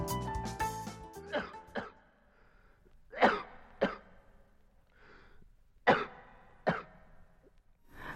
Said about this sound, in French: Atchoum par-ci, atchoum par-là.